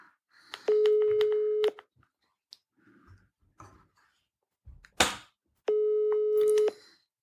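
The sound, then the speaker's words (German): Two long, steady electronic ringback tones of about a second each, separated by a pause, the sound of an outgoing phone call ringing; faint clicks and brief voices fill the gap. The call goes unanswered. “Es, es, es klingelt, es klingelt.”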